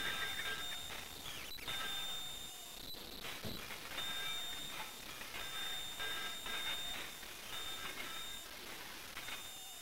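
A saw cuts with uneven, rasping strokes against a steady high-pitched whine, moderately loud and continuous throughout, with no voices.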